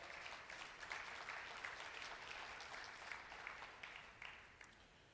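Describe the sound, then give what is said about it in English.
A church audience claps steadily for several seconds for money raised at a church yard sale for missions, a dense, even wash of many hands with no voices over it, fading slightly toward the end. “So uh, give yourselves a round of applause uh, for that.”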